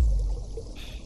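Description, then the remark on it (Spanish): A voice imitates calm, gently flowing water with a soft, steady shushing hiss that lasts about a second, with a slight brightening of the sound near the end. “Te veo boca abajo en el agua, el agua está muy tranquilo, hace así el agua y va por encima de ti”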